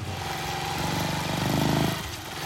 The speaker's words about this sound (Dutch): Hij zet haar gewoon achter op de brommer en rijdt weg.